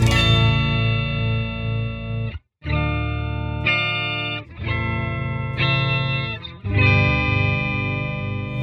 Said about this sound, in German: Wenn du jetzt das Dry ganz rausdrehst, geh mal auf den Clean Sound. Dann kriegst du diesen Orgelsound.